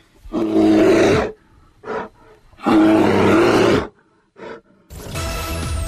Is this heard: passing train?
no